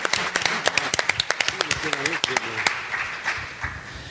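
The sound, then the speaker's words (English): An audience applauds performers who have just spoken Klingon, with a flurry of sharp, overlapping claps and a voice rising briefly through the middle; the clapping thins out and fades over the last second or so. “Let's, Thank you Let's give much. our Klingons another round of applause.”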